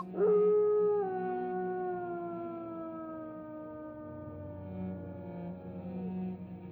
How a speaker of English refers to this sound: and so he uh, he throws his head back, and um, and he howls.